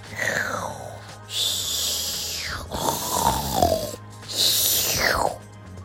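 The sleeping owner of a cat-run Western restaurant snores in a steady rhythm: four loud, rasping breaths, each ending in a whistling tone that slides downward in pitch. Nothing else can be heard between the snores.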